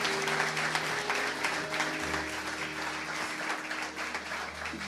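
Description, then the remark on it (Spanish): An audience applauds God steadily for several seconds, a dense, continuous wash of clapping hands with a low sustained hum beneath it and no speech. “Dale un fuerte aplauso a Dios en este día.”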